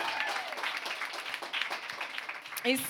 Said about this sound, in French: On les a applaudis tantôt, on peut les réapplaudir, puis applaudissez-vous donc, vous.